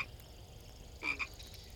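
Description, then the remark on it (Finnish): A poisonous-looking frog on a water lily, in the light of fireflies, croaks twice in quick succession, two short raspy calls close together, standing out over a quiet, faintly hissing background with no one speaking. “Jos päätät katsella sammakkoa, siirry kohtaan seitsemän.”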